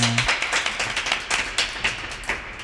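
A small group claps for a few seconds, the sharp, uneven hand claps overlapping in a loose, scattered rhythm without building into full applause.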